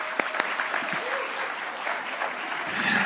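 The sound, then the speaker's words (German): An audience at the Schöne Aussicht applauds the site manager of the building, a dense wash of many hands clapping at a fairly even loudness, with a few sharper individual claps standing out near the start. “Und jetzt geben wir ihm dafür nochmal nachträglich so einen richtig fetten Applaus.”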